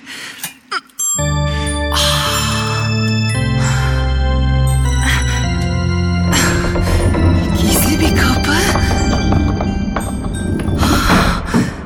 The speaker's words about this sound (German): Şimdi müzik kutusunu çalıştırıyorum. Bakalım ne olacak.